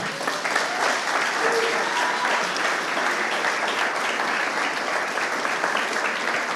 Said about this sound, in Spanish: Un aplauso al Señor, que Él es bueno.